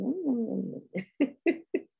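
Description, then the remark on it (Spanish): A voice imitates a kitten drinking milk: a short wavering mew, then five quick, evenly spaced lapping smacks, moderately loud, with no talking. “Yo vi unos gatitos, el jaguar que es un gato, ¿sí? Que estaba tomando leche y hacía...”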